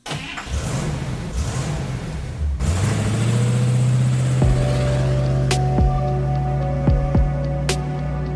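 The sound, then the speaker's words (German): A short intro jingle built from car sounds: an engine revs and accelerates through patter like rain, then settles into a steady droning tone punctuated by a few sharp hits. No one speaks. “Vorher gibt es hier aber noch das Intro”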